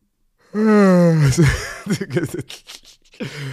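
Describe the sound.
A person yawns with a long, drawn-out voiced groan that slides downward in pitch, followed by a few moments of speech.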